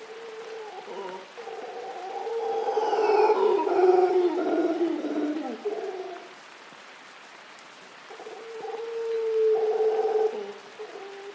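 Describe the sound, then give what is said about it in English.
A troop of golden mantled howler monkeys in the treetops of a cloud forest in Rincon de la Vieja National Park, northwestern Costa Rica, call to each other in the rain: deep, drawn-out groaning roars, a long swelling chorus followed by a brief lull and a second rising bout, against a steady hiss. “In the treetops, a troop of golden mantled howling monkeys calls to each other across the cloud forest.”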